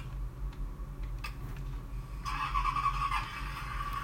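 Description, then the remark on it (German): A vehicle's turn signal ticks steadily over a low engine rumble, the clicks moderate in volume, with a brief rising whine joining in partway through. No one speaks. “Hört euch den Blinker an. Das ist doch beschämend.”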